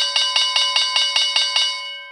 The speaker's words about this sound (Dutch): vind het alleen al leuk om die bel lekker aan te kondigen. Daar ben ik heel blij van.